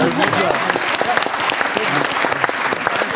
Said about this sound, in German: Dann bist du, dann Applaus